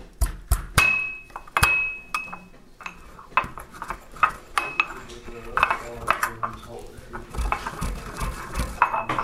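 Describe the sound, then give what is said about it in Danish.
Clatter of a knife pressing and scraping against a hard surface, crushing a hard children's calcium tablet, with sharp clicks and grinding crunches in an uneven rhythm, plus light metallic clinks of utensils. “den er jeg nødt til at knuse først med, med en kniv, fordi den er så hård simpelthen.”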